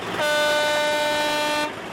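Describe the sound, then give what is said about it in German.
A single long, loud tractor horn blast holds steady for about a second and a half during a farmers' protest with tractors on the streets in Germany, with a low wash of outdoor street noise before and after it. “Statt aufs Feld sind sie mit ihren Traktoren auf die Straßen gefahren.”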